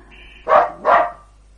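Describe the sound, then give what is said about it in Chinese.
A dog barks twice at a weasel near a chicken coop, two short, loud, midrange woofs in quick succession about half a second apart, with no voices around them. “黄鼠狼还没下手，狗就叫起来了。”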